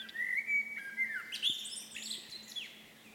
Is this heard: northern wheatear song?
yes